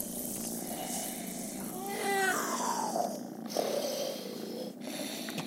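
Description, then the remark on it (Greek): A cat named Paspartou purrs steadily and happily while asleep in a continuous rumble, with a brief whistling, descending tone gliding through the middle. No one speaks. “Λίγο πιο εκεί ο Πασπαρτού γουργουρίζει ευτυχισμένο στον ύπνο του”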